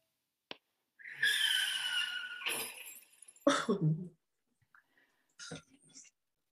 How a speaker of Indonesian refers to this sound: mobil mobil gue nabrak pembatas kiri jalan.